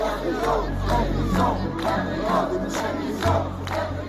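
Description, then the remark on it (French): A large crowd of protesters, residents of Saint-Étienne, chants in unison outside city hall on 28 November 2022. Loud, rhythmic shouted phrases repeat roughly every half second to a second over a steady low rumble of voices. “les Stéphanois, de tous âges et de tous bords politiques, ne décolèrent pas et manifestent régulièrement pour le faire savoir.”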